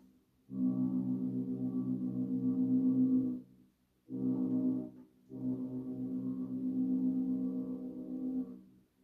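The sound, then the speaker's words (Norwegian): The horn of a Hurtigruten coastal passenger ship, arriving or leaving Svolvær on a Saturday, sounds three times: a long low blast, a short one, then another long one, steady, loud and harmonic-rich, with no talking over it. “Jeg vet ikke om dere hører det, men det er Hurtigruta.”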